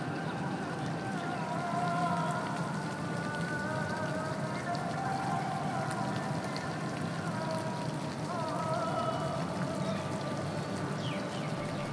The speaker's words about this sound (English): provides this kind of white noise in which the, the bird song and the fountain kind of uh, overlays.